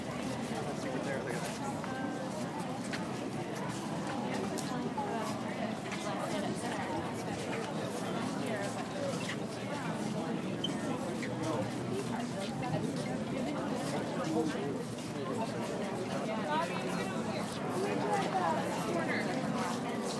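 Steady babble of a large outdoor crowd at a busy art fair in Madison, Wisconsin, USA, recorded on July 9th, 2022 while walking through the fair; many voices overlap with no single speaker standing out, a continuous busy hum lasting throughout.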